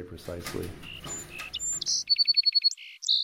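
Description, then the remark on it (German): A song sparrow sings right after a voice stops talking, with a few high, clear whistled notes, then a quick, even trill of repeated notes and a brief closing phrase, fairly loud. “Wir entscheiden, welchen Vogelgesang sie zu hören bekommen und können messen, wie gut sie diesen Gesang lernen.”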